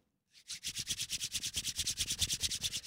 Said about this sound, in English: Rubbing those hands together.